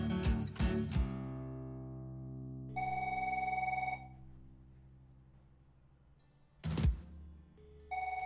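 A telephone rings with bright, bell-like tones: a cluster of sharp strikes at the start, a sustained electronic tone, then another ring that fades away. No one speaks.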